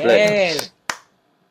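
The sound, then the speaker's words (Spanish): A voice makes a short drawn-out sound, then a single sharp hand clap rings out, followed by silence. “Yo aplaudo porque sé que no acerté ninguno.”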